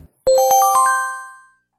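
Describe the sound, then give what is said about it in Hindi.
A bright phone notification chime, signalling a message arriving on a phone, plays a quick rising run of five or six bell-like tones, each ringing on and blending into a smooth fading shimmer, clear with no talking. “मैंने ब्रश को नीले रंग में बस भिगोया ही था कि मेरे फोन पर कोई मैसेज आया”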